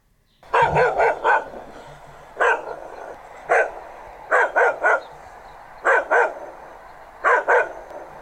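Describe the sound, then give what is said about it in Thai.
A mixed-breed guard dog barks sharply and rapidly in quick bursts of two or three, pausing briefly between clusters, a warning bark to drive off people who come near the house, loud with no one speaking. “ใครที่มายุ่มย่ามใกล้ๆบ้านเจ้าหมาพวกนี้ก็จะเห่าเลยค่ะ การเห่าไล่คนนะคะ หรือว่าการเห่าเตือนภัยนั้น ก็จะเห่าเร็วๆติดๆกันแบบนี้ค่ะ”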